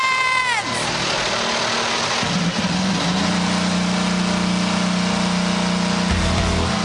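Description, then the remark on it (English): IndyCar race car engines fire up together on the start command at the Firestone Grand Prix of Monterey, NTT IndyCar Series: a falling whine at the start giving way to a loud, dense, sustained roar of many engines idling and revving. “Drivers, start your engine!”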